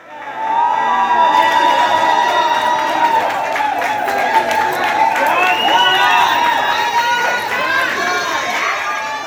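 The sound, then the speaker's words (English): A large crowd cheers and shouts continuously to welcome home young Cayman Islands athletes and swimmers returning from the Carifta championships at Owen Roberts International Airport, with many excited voices overlapping, including high-pitched children's cries, forming a loud, sustained roar throughout. “The contingent of young athletes, which represented the Cayman Islands at the Carifta Aquatics and Athletics Championships, have returned home this afternoon to a fitting welcome reception from a large and highly appreciative crowd.”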